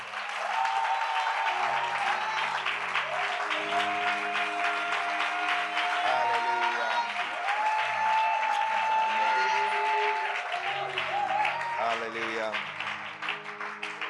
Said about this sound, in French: Est-ce qu'on peut acclamer encore plus fort?